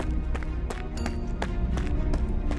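Fast running footsteps of a person fleeing as fast as possible pound steadily, about three strides a second, fairly loud over a dense low rumble of background noise, with no one speaking.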